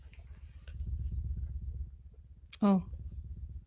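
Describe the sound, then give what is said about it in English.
A 7.8 hertz tone at the Schumann resonance, played about as loud as possible before distortion, pulses as a steady stream of low, rapid clicks, eight per second, like a deep fluttering tone. Partway through, a voice briefly exclaims over it. “So basically, what you are hearing is eight clicks per second.”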